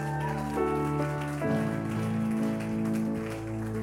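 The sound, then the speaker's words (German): Steady, dense clapping from a crowd as a woman is invited onto the stage for Testimony Time, a continuous crackle over sustained keyboard-like chords that shift midway, with no talking. “Come on, gib mir einen Applaus.”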